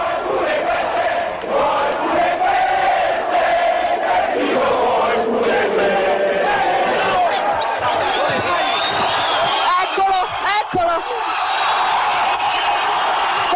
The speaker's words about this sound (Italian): che è praticamente la residenza romana di Craxi, il leader del Partito Socialista viene sommerso di monetine, lanciate dalla folla per sfogare tutta la rabbia e la frustrazione accumulata nell'ultimo anno per quello che stava accadendo in politica.